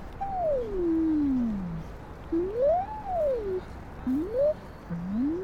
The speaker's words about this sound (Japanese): これ小学生漢字っていうソフトウェアなのね、うん、よくある漢字練習ソフトですよ、うん、で音がね、鳴るんだけど、で例えばこう